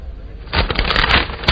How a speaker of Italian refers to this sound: ma tu non devi far sta casciara col giornale. E che pretendi che leggo solo la prima pagina? E lo dovrò più, no? E eh, aprilo in modo da non infastidire il mio meritato riposo.